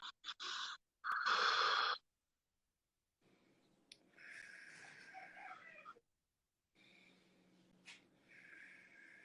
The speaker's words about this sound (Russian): Поэтому лежа или сидя лежа или сидя, вдох через нос, выдох через рот. То есть будет так.